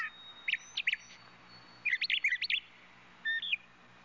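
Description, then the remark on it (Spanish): Birds trilling in short, bright bursts in the mountains: a pair of quick calls, then a busier flurry of chirps, then one last brief call, over a soft, steady outdoor background of wind with no voices. “Sus voces y sus pasos constituyen un sonido polifónico, ambiental, que se integra con el viento y el trinar de las aves.”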